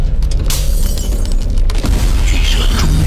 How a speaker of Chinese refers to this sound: 巨蛇撑破窗户，开始向外挤出身体。